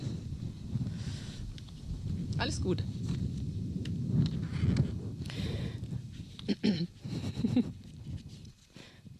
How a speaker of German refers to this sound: die Böe hört gleich auf. Das ist das Wirken des Heiligen Geistes.